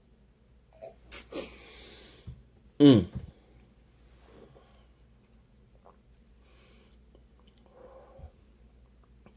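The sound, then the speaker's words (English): A couple of brief slurping sips of tequila, followed by quiet breathing and a soft appreciative hum from a voice. “Sorry, let me let me take another another sip.”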